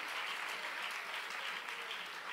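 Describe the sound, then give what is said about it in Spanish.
Steady applause from an audience giving a strong round of applause to the Lord, a dense wash of many hands clapping at an even level throughout, with no voices standing out. “Dele fuerte el aplauso al Señor, a sí mismo.”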